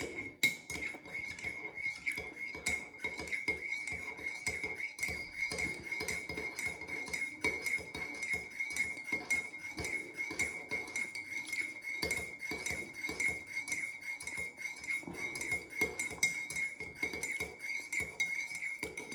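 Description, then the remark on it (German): A spoon clinks and scrapes against a coffee cup in a rapid, continuous stirring rhythm, fairly loud, with a faint ringing tone lingering throughout and no voices. “Und dann trinken wir jetzt erstmal Kaffee.”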